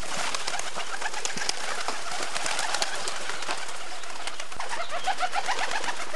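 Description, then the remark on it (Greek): A flock of birds stirs and takes off from their nest, wings fluttering in a dense, steady rush mixed with soft pigeon-like calls, busy throughout, with no one talking. “Τα πουλιά εγκατέλειψαν τη ζεστή τους φωλιά.”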